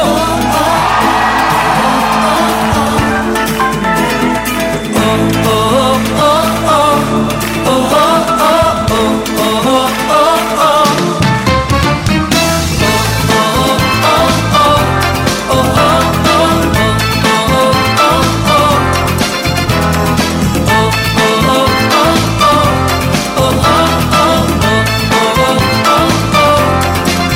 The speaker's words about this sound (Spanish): ¿Quiénes están celebrando estar en el monte de Sión? ¿Cuántos pueden dar un buen grito de júbilo?